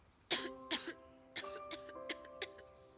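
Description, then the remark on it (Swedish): A girl pretending to be sick in bed gives a series of about six short, sharp coughs in uneven bursts, some close together in pairs, heard over a soft sustained musical tone in the background. “Flisa hostade och snöt sig i en näsduk.”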